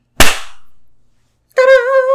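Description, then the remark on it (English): One sharp, loud hand clap, made after a count of three as a sound spike on the waveform to sync audio, rings out and fades quickly into silence, followed about a second later by a voice starting up. “One one is a sound spike on the waveform for us to sync up our audio.”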